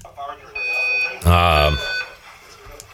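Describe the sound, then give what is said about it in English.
A fire alarm blares with a steady, high-pitched electronic tone, with a louder burst in the middle, during media day festivities, while a person speaks briefly over it. “That is the sound of a fire alarm going off during the uh, festivities today,”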